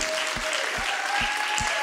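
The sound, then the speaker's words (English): A crowd applauds steadily, a dense wash of clapping that stays loud and even throughout, with a few low thumps landing at a regular beat underneath. “Can we give her an applause?”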